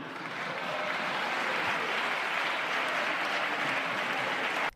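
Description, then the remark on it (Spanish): Sustained applause from a large crowd of parliament deputies during a session addressed to the President of the Government, a dense steady clatter of many hands clapping at even loudness for several seconds before cutting off abruptly. “No me refería a ninguno de ustedes. No sé por qué aplauden.”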